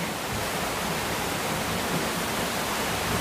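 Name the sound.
heavy rain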